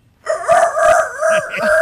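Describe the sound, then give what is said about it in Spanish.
A rooster crows once, loud, a drawn-out, strained call with a wavering pitch that carries on without a break, as the card 'El gallo' is called, the second lotería card on Raúl Brindis's show. No voices are heard. “Apúntalo bien, el gallo.”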